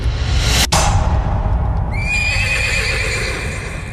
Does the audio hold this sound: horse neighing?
yes